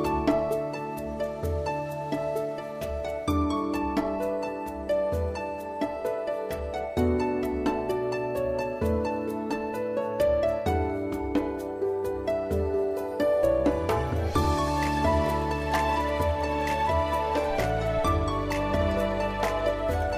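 A Vietnamese song's instrumental opening plays loud and full, with a steady beat, sustained chords and bright percussion, swelling midway and settling into a deeper bass near the end; no voices.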